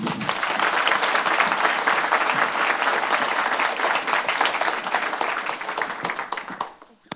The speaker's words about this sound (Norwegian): Jeg eh, gir henne en stor, stor applaus.